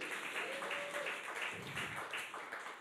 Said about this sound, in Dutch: Volgens mij heb ik hier iemand voor nodig op het podium. Applaus voor de stage manager.